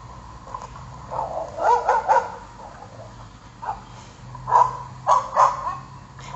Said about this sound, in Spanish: Amaneció ese día con el canto de los pájaros. Tan fuerte que hasta el cachorro dormilón de la casa despertó de un salto y comenzó a ladrar.